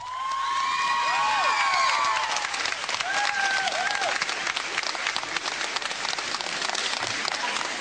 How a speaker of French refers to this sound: Eh bien dis il reçoit beaucoup d'applaudissements.